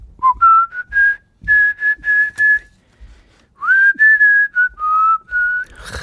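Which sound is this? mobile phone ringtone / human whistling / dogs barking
human whistling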